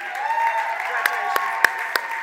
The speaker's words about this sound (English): All right, guys, one more applause as they leave.